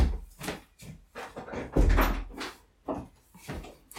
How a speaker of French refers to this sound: je vais fermer la porte parce qu'on va craquer.